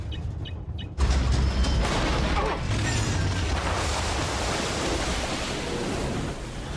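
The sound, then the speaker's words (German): After a second of near-quiet, the Razor Crest spaceship makes a rough landing, slamming down into water with a sudden heavy splash. A loud, sustained roar of churning, rushing water then carries on for several seconds. “Ich sagte, ich hatte laut gelacht und da denke ich nur, ne, wie die Razor Crest ganz am Anfang nach dieser, nennen wir es mal, Landung da ins Wasser platscht.”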